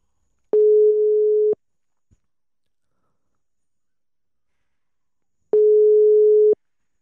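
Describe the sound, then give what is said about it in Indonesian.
The ringback tone of an outgoing phone call sounds twice, each a steady one-second electronic beep separated by about four seconds of silence, clear, with no voices. “uh, eh, biar tidak berlama-lama, kita langsung telepon orangnya aja.”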